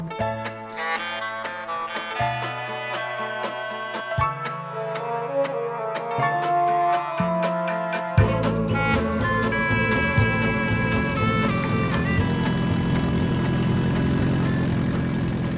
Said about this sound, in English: Well, that sounds like a car where the uh, exhaust system has gone bad one way or another. That's right. That is the lovely roar of a car without a catalytic converter.